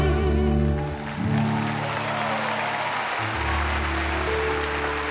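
Steady, dense applause from a live audience fills the whole stretch, loud, with sustained low musical tones ringing underneath as the band holds its final notes.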